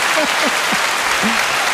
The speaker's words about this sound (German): Sowieso, den Applaus lassen wir noch mal ein bisschen laufen, weil äh, er, der, er nervt fast gar nicht.